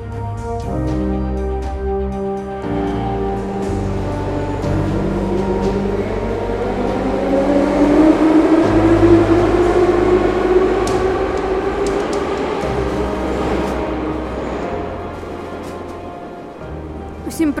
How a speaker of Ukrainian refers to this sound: І як ви можете чути, як ви можете чути, сьогоднішній випуск я записую на виїзді у харківському метро.